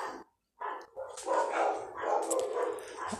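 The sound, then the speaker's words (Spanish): Dogs bark in a quick, overlapping burst after a brief pause, several yappy barks running together with no one speaking; the speaker's own dogs, at home, where dogs are kept loose. “Ay, mis perros. mis perros, aquí están.”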